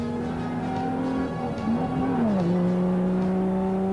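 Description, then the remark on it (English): An Aston Martin sports car engine drones loudly and steadily, its pitch briefly wavering and then dropping midway as if shifting gear before holding a new steady tone. No one speaks. “We left in the Aston Martin”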